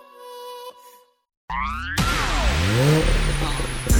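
After a short sustained tone and a brief silence, the engine of a brand-new car roars loud, its pitch sweeping up and down as it revs hard for a few seconds.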